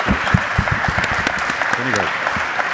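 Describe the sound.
An audience applauds with steady, dense clapping that stays loud throughout, while a voice speaks briefly underneath the applause.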